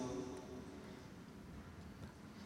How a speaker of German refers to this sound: Was tönt das so? Ist das der Zug? Der Zug kommt.